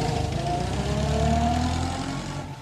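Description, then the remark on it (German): A car engine hums steadily and rises slightly in pitch as the car pulls away in the evening, then fades a little toward the end, with no voices. “An diesem besagten Abend steigt Karl Wilke in sein Auto und macht sich auf den Weg”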